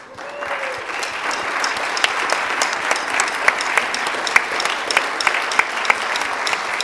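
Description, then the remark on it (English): An audience applauds steadily for the season's soccer players and coaches, a dense wash of clapping with a few sharper individual claps standing out, sustained for several seconds. “And if you are one of the players or coaches, I would like to invite you to stand right now, and we'd love to give you a round of applause.”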